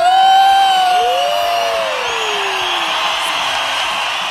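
A crowd claps and cheers loudly for about four seconds to welcome a guest being introduced, with shrill whoops and a sliding whistle-like cry rising above the steady wash of applause before it gradually fades slightly.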